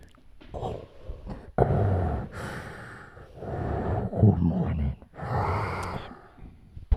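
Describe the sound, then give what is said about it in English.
A voice imitates Darth Vader's heavy, mechanical breathing with several long, rasping inhale and exhale cycles, fairly loud, with a low growly texture and no clear words. “Do the heavy breathing”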